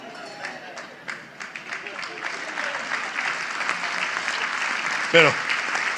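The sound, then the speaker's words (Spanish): An audience applauds the Lord steadily for several seconds, dense overlapping claps forming a continuous roar, with a voice briefly speaking over it near the end. “démosle fuerte el aplauso al Señor porque...”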